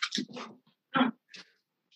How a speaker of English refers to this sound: That dog hates us. That dog's like, yo, we're not doing this interview tonight.